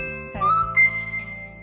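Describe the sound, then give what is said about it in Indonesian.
A phone notification alert sounds: a brief, bright whistle-like chime that glides upward and holds, then a second higher tone, moderately loud over a steady low hum, with no talking. “ada potongan apa itu suara apa oke suara aku notif semua.”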